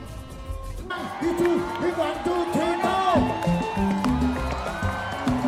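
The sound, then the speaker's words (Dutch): A large crowd at a live show roars and cheers continuously for a well-known song, with many overlapping voices shouting and whooping, dense and loud throughout. “Gaat een hele publiek uit zijn Want hij is een van de bekende nummers hier.”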